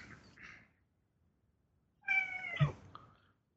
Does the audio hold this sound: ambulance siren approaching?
no